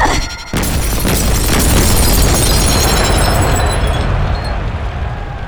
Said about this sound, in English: Mia's glaive sent flying across the field like a bat out of hell, shattered wall after wall with the explosions it leaves in its wake.